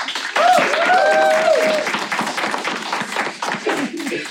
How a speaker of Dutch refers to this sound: Dus ik wil echt een heel hard applaus voor deze knappe jonge dame.